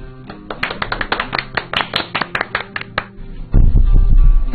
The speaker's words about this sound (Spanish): a quienes recibimos con un gran aplauso, por favor.